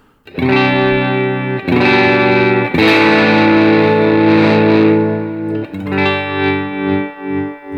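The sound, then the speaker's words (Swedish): A distorted electric guitar plays loud sustained chords that change a few times, and toward the end the volume pulses in a steady wavering tremolo effect. No one speaks. “dels kan du få det här volymtremolot, men du kan också få det här like, walk”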